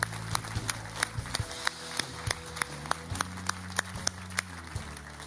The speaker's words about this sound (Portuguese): Podemos dar uma grande salva de palmas a estas pessoas esta manhã.